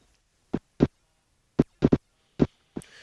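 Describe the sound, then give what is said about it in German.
Eye movements recorded with a tiny microphone by a scientist at Duke University in the USA: about six dull, muffled thumps at irregular intervals, fairly loud against silence, the last trailing into a faint hiss. “Äh, nein, das Radio ist in Ordnung oder der Podcast, aber das, was man hier hört, das sind Augenbewegungen.”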